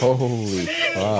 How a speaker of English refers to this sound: Is that like a feral cat or something? No, that's just a cat that really hates the vet.